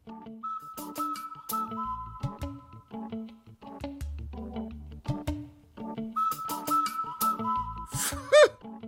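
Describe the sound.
A whistled imitation of a cuckoo call, steady high notes stepping between two pitches, repeated with sharp clicks and knocks around them, moderately loud, with no talking.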